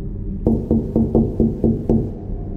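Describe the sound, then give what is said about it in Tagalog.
Six quick, evenly spaced knocks rap on the window of a black car that will not start, fairly loud, over a low steady rumble, with no voices. “Maya-maya pa ay may kumatok sa bintana ng sasakyan ko.”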